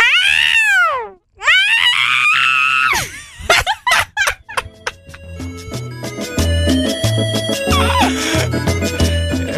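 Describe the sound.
A person imitates a yowling female cat with two long, high, wavering wails, followed by bursts of laughter and chatter from several people.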